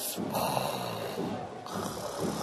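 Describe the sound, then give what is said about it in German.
A voice imitates snoring with a few drawn-out, rasping snores in a slow rhythm, moderately loud, with no other talk, portraying a young man asleep in bed. “Nun, die Trommeln und Fanfarenbläser des benachbarten Dorfes waren laut am Musizieren, aber jener der dritte Sohn des Schneiders legte sich ins Bett und schlief.”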